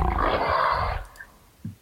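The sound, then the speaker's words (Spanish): A person roars loudly in a growling, beastly imitation of a wampa's call, a sustained rough bellow of about one second that cuts off into near silence with a faint breath. “¿Sabes cuál es el llamado guampa? Así.”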